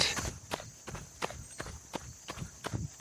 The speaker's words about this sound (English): Do you hear that sound? You know what that is? That's me running.